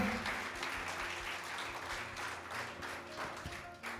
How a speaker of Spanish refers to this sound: Dele un aplauso a Dios. Give God an applause.